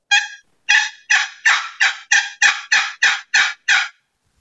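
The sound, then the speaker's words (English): A man works a turkey box call, yelping in a steady series of about eleven raspy, evenly spaced yelps, loud, with no talking over it. “And that, that that's a box that's, call he's using box.”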